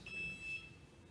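A single high-pitched electronic alarm tone from a fire alarm sounds for about half a second, faint, over a low background rumble with no one talking.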